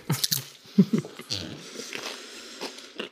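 Crunchy bites and chewing of food, a quick cluster of crisp crunches at the start followed by steadier, quieter chewing with brief wet squishy sounds.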